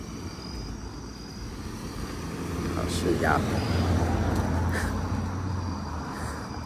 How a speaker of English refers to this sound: I'm out here recording. I'm about to get hit by a car. It's not funny.